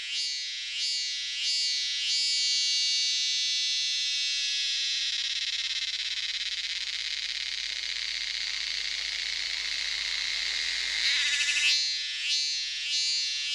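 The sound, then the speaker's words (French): A Thai cicada, Dundubia terpsichore, calls loudly, opening with rapid rhythmic pulses that merge into a sustained high-pitched buzz, then breaks back into pulsing at the end. No voices. “C'est une euh, cigale thaïlandaise.”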